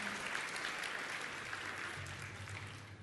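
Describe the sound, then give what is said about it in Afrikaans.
An audience applauds the band with dense, steady clapping that stays loud and even for the whole clip, with a faint low hum underneath and no voices. “Ag gee vir die orkes 'n lekker hande klap toe.”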